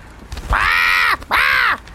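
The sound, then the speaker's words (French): Two loud, harsh squawks from an agitated bird pecking at a little girl, each lasting about half a second with a brief gap between them, sounding raspy like a crow's caw. “L'oiseau est totalement agité et pique du bec Sacha en piaillant.”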